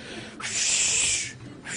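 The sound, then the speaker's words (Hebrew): A voice imitates a gym-goer's heavy straining breaths, a long forceful hissing exhale followed by the start of another, loud, as if lifting 300 kilograms though the weight is only half a kilo. “כל משקולת חצי קילו, וגם הוא עשה נשימות, כאילו הוא הרים איזה 300 קילו.”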